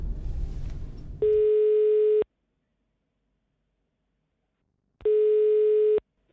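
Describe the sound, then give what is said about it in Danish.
A telephone ringback tone on an outgoing call to a man suspected of a double bank robbery: two steady, loud electronic beeps about a second long, separated by a few seconds of silence, following a brief burst of noise at the start. “Derfor så ringer vi lige til ham.”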